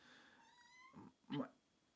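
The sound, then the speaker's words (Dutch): A cat gives a drawn-out, faint meow that slides upward in pitch, followed by a couple of short, breathy bursts of sound. “Ik hoorde iets miauwen.”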